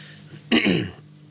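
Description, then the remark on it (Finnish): A single short, raspy throat clearing, a rough burst lasting about half a second against a quiet background hum. “ja sitten köhäsy ja katsotaan vielä, että onko täällä kaikki.”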